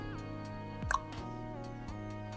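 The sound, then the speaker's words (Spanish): A single short, sharp click, made to trigger a phone to open its control center, stands out about midway through, distinct, set against a steady low electrical hum with no talking. “Haz el clic.”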